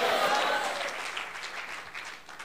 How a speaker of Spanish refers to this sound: Bueno, vamos a ver así como aplaude, aplaude, aguanta.